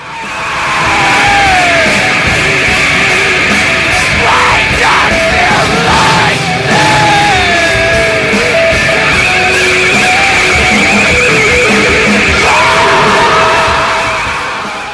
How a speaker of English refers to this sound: screaming "Why don't you like me?" over and over again.